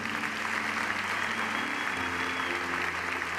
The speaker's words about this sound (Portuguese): Quantos podem dizer amém e dar um aplauso bem forte ao Senhor?